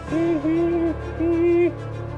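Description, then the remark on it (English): Soft, low cooing from two birds in the dark inside a shipping container: a couple of smooth, steady hooting notes, the first longer and slightly wavering, the second shorter, heard clearly with no one talking. “just barely missed two birds cooing in the dark.”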